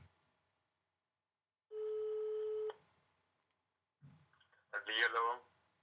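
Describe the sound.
A single steady electronic ringing tone of an outgoing phone call sounds for about a second, followed by a short pause, a faint click, and then a voice answering on the line.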